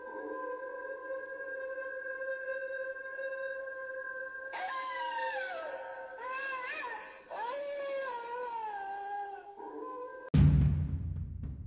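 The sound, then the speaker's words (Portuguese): A wolf at a cabin gives a long, sustained howl that holds a steady pitch, then wavers and bends in tone for several seconds before a sudden loud crash cuts in at the end. “Ernie ficou assustado, pois, abre aspas, seus grunhidos soavam terrivelmente semelhantes a palavras humanas.”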